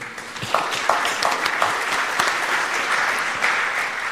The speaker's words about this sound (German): es gibt, glaube ich, sogar Beifall vom Podium.